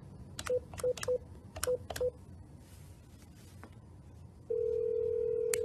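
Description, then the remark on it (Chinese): A quick run of about five or six telephone keypad tones, each short beep paired with a click, followed by a pause and then a steady, sustained ringing tone, as Barack Obama phone-banks for Joe Biden, calling voters on November 2, the day before the election. No one speaks. “可以讲，奥巴马作为前任总统，他在昨天十一月二号大选前一天，他还在不断地打电话给他自己选区的选民，要求这些选民支持拜登，投拜登的票啊。”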